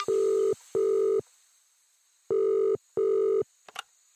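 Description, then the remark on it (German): A telephone ringing tone plays as two pairs of steady, buzzy beeps separated by a pause, loud, followed by a brief click as the line picks up, as a call is placed to a bicycle mechanic. “Ich ruf mal kurz an.”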